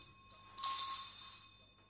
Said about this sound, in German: In diesem Augenblick unterbrach uns die Glocke an der Haustür.